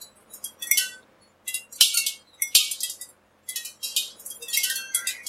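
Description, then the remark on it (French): Bright, glassy pings and tinkles from the enamel glaze crazing on ceramics just taken out of the kiln, arriving in irregular clusters with a couple of sharper ticks, clear with brief silences between bursts. “C'est le son émis par les céramiques tout juste sorties du four.”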